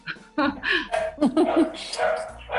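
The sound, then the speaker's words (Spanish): Small dogs bark at home in a rapid, overlapping flurry of high-pitched yaps, fairly loud, with barely a pause across the whole stretch. “Oye, quiero mencionar que estamos eh, haciendo esto desde casa, incluso los ladridos de los perritos.”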